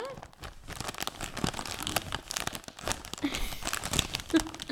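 Continuous crinkling and rustling of plastic packaging as a hand reaches into and rummages inside a bag, with irregular crackly bursts throughout and no clear speech over it.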